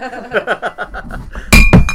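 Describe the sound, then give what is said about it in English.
A voice murmurs briefly, then glasses clink together twice in a toast in quick succession near the end, sharp and bright, with a faint ringing tone lingering after the hits. “We were toasting.”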